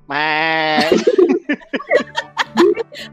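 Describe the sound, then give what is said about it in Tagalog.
A loud goat bleat holds for nearly a second, then gives way to quick, choppy voices, likely people talking or laughing in short bursts. “Ah, yung kapag ano, yung kapag yung tipong ano siya, senti-senti o kaya yung magandang ano niya, bigla lalabas yung kambing.”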